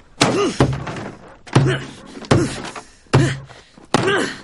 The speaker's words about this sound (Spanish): Coge un bate de béisbol y golpea con saña al cubo de basura.